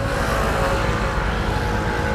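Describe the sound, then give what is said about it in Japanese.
A steady, loud rumble of heavy road traffic at a street crossing with a traffic signal fills the whole stretch, with engine noise and low-frequency roar sustained throughout and no clear pauses. “ちょっと車が多いところに入るんで”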